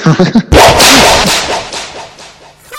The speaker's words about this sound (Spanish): con eco y todo. Ha venido desde Estados Unidos el latigazo. El, latigazo es que tiene un problema. Cuando se oye por Skype y por demás sitios, eh, se vuelve loco.